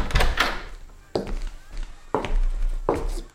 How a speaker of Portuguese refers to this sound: Vamos, todos juntos, arrombaremos essas portas